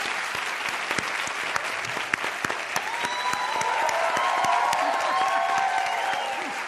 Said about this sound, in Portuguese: Deborah Coker está aqui, pode aplaudi-la, por favor.